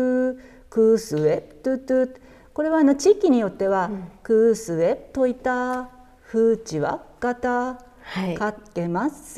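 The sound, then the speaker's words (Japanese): A voice imitates the cooing call of an oriental turtle dove (yamabato or kijibato) with rhythmic, sing-song syllables, as sung in Ainu music that hears the call as 'kusuwep'. The imitation is repeated between stretches of clear speech. “山鳩とかキジバトって書かれる時もありますけどももうあの日本語で例えば本州以南だとデデッポッポとかっていう呼び方をするらしいんですけども、はい、一度あのこのクースウェップのあの歌を聞いてあの鳴き声を聞いたらもうクースウェップといたとしか聞こえないという。”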